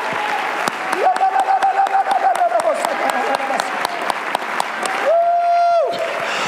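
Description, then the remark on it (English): A large audience across a church sanctuary claps hands in a steady, continuous patter throughout, while a sustained high tone swells and fades over the clapping twice. “Oh, everybody all across the sanctuary, clap your hands.”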